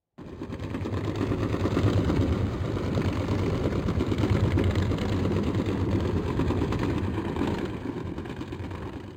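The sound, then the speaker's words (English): A steady, dense low rumble of a commercial ship's engine recorded underwater, with a droning hum and tonal bands throughout, continuous and fairly loud with no voices. “That was a commercial ship.”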